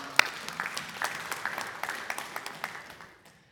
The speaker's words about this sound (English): Amen. Amen. Give them a clap as they come.